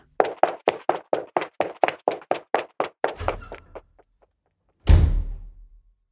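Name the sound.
door opening and closing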